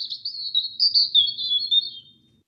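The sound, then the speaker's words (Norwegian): A bird chirps in a rapid, continuous high-pitched trill for about two seconds, clear, then stops; there is no talking. “Dette er ikke en elg, dette er en fugl.”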